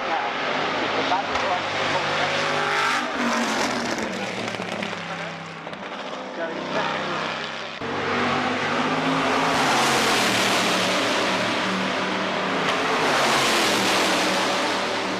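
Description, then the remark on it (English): The engine of an American-built race car roars loudly and continuously, rising and falling in pitch as it revs and accelerates, with a dense, rough rumble filling the whole stretch. “It's just a raw, guttural sound that hits uh, petrol heads and motorsport fans or just human beings in general uh, in the cockles of your heart.”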